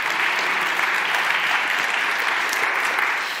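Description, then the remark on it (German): Steady audience applause, a dense wash of many hands clapping at an even, sustained loudness throughout, with no voices standing out above it before it eases slightly at the end. “Hessen hat das, jawohl, Applaus. Applaus.”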